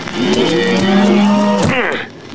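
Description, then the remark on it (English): A single long, loud cow moo in cattle country from The Simpsons' Meat Council film "Meat and You: Partners in Freedom", low and droning for over a second and a half, then rising into a brief higher bellow before trailing off, with no talking. “Nothing beats a stroll in cattle country.”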